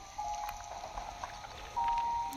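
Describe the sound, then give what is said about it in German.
Steady patter of rain falling on a surface, a dense even hiss of drops with no voices; a thin high tone briefly sounds near the end. “Äh, nein, bei Regen klappt es nicht.”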